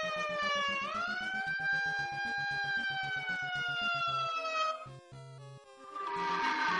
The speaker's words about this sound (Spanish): Pues es una sirena normal.